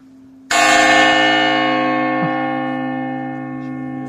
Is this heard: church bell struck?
yes